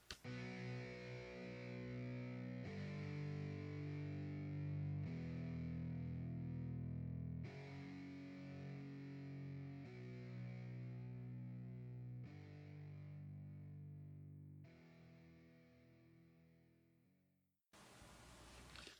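A short instrumental closing theme with heavily distorted, guitar-like chords changing every few seconds in steady blocks, gradually fading before a brief burst of noise at the end. No voices.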